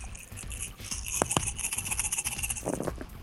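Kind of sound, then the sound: dice being rolled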